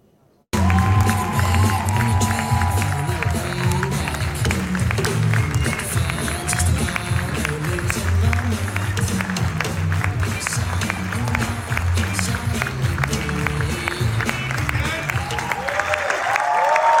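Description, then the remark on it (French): A packed crowd at a film screening erupts in sustained applause and cheering as a guest enters the hall, loud, with scattered whoops and shouts rising over dense clapping that continues steadily throughout. “On va tout de suite regarder son entrée dans la salle et le moment où il a donc révélé ce qui allait être projeté.”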